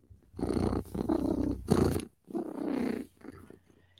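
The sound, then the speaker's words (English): A person imitates a cat's purr, producing a rolling, throaty rumble in two long bursts with a brief pause between, trailing off into a softer final purr. “if I'm purring, I'm happy.”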